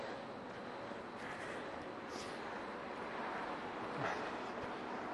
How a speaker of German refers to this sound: Was, die, was den Wind angeht, der Autolärm, dafür hört man hier wieder die Klimaanlagen rauschen.